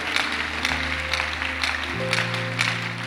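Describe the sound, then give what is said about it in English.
A crowd claps steadily in a dense, crackling wash of applause, while sustained low keyboard chords hold underneath and shift to a new chord partway through. “Be, be happy and clap.”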